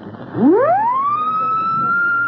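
A handheld siren whistle on a chain, blown in a test run at only a fraction of its full loudness, winds up from a low growl to a steady high wail, sounding much like a police siren, loud with no voices over it.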